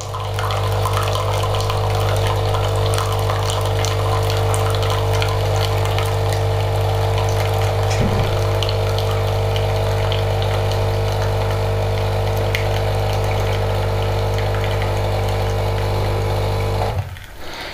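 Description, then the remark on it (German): Liquid pours steadily into a cup until it is full over a constant mechanical pump hum, running unbroken for about seventeen seconds before being stopped abruptly. No one speaks. “hört das? Die Tasse läuft voll.”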